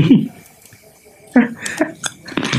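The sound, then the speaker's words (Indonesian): Rainwater from a leaking roof drips into a metal pot, a handful of separate plinks landing at irregular intervals over a low, murmuring background. “Ma maaf bro, karena hujan trocoh jadi ambil panci sama gombal.”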